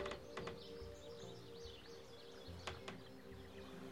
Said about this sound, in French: Soudain, des oiseaux se mettent à chanter.